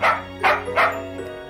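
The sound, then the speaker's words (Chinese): A small dog named Willie gives three quick, yappy barks in a fairly even rhythm, followed by a softer, brief whimpering sound, with no voices present. “彼得对小狗说。”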